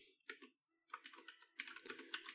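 Rapid clicking of keys on a computer keyboard as an entry is typed into a ranked list, a quick burst of typing with a short pause before resuming more densely, fairly quiet, with no voices.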